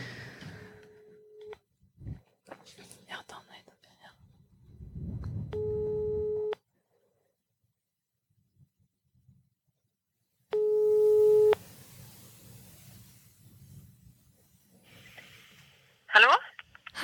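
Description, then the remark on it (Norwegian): A phone ringback tone plays over a speakerphone, two long steady tonal bursts separated by a pause, with faint background rustling and murmur around them. “ok, du må ta på høyttaler, da. Ja. Da prøver vi.”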